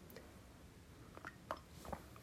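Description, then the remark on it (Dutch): Someone takes a few quiet sips of coffee, with soft slurping and wet mouth sounds in short bursts against near silence. No one speaks. “Even een slok van mijn lekkere koffie tussendoor.”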